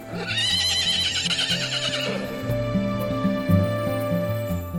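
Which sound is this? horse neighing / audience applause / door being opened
horse neighing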